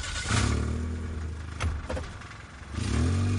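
A car engine turns over with a brief cranking burst as Walt starts the car, then idles and revs up as the vehicle pulls away, loud with no talking.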